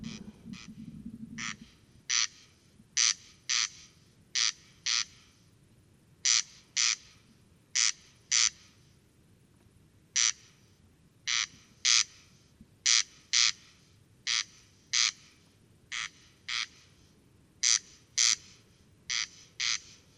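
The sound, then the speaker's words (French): A male corncrake calls on a clear night in mid-July in the mountains, its harsh, rasping crek-crek notes repeating in steady paired bursts, loud against a quiet background with a faint low rumble at the start. “Le Râle des genêts”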